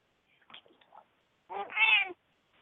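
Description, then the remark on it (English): A cat gives a few soft, short chirping sounds, then one long, drawn-out meow that rises and falls. It is clear, with no talking. “Well, shit, that's her meowing.”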